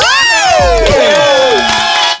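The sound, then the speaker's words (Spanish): A recorded crowd cheers loudly for about two seconds, many high voices overlapping in rising and falling shouts, with clapping beneath, before it cuts off abruptly. “¡Otro aplauso para Cotejito!”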